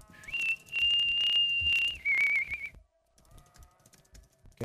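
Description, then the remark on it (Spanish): Someone whistles a long, steady high note, then a shorter, wavering lower one, loud, with faint tapping in the background before things fall quiet. “A mí me gustaba mi amigo … cuando silbaba.”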